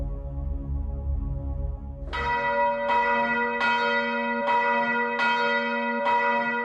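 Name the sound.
church bell ringing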